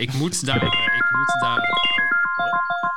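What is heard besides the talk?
phone alarm going off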